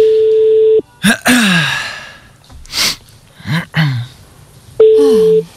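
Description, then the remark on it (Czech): A telephone ringback tone from a call being placed sounds twice as steady electronic beeps at the start and end, with breathy gasps and sighs in between. “Jasně, já jenom rychlosti si zavolám, takže eh, kdokoliv, eh, komu teď zazvoní telefon a bude tam mít telefonní číslo naše tady odsud, tak uh, my to prosím vás vemte, jo, buďte tak hodný, děkuju.”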